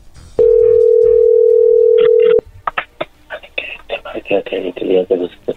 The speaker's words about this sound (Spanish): Ahí entró la llamada, no haga ruido.